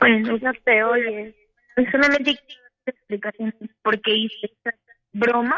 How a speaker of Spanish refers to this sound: no te escuchas bien, mija, quita tu altavoz o tu audífono o algo que tengas que se escucha con eco y no te podemos escuchar bien.